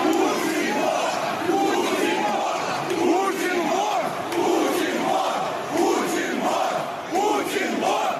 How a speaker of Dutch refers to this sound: Er zijn ook regelmatig nu eh, demonstraties met leuzen als Poetin is een dief. En dat klinkt zo.